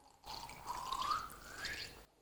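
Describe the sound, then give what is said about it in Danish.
Air bubbles dragged underwater by a harbour porpoise in about 2 metres of water make a watery, gurgling sound whose pitch rises steadily over about two seconds, fairly quiet, with no talking. “De der sjove lyde, det er så, når den trækker luftbobler med ned.”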